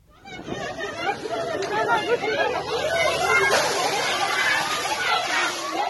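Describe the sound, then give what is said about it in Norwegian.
A crowd of young women protesters hiding in a back alley in Kabul shouts 'Education is our right' and chatters excitedly while a fire truck's strong rushing spray of water hisses and sloshes steadily underneath, loud throughout. “En brannbil spyler ned demonstrerende unge kvinner som har gjemt seg i en bakgate i Kabul, mens de roper 'Utdanning er vår rett'.”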